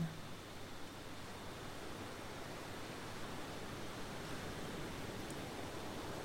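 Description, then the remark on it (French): Soft, continuous rushing of ocean surf on a shore, a steady wash of water with little rise and fall, heard alone without any voices. “Écoutez quelques instants les vagues qui vont et viennent.”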